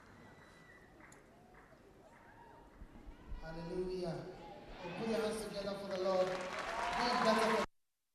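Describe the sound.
An audience breaks into applause partway through, the clapping swelling louder with raised, cheering voices mixed in, then cutting off abruptly at the end.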